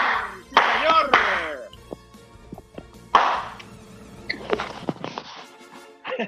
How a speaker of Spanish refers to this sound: Es nuestro tercer episodio, como dije, señores, un aplauso al tercer episodio de Los Increíbles. ¡Bravo!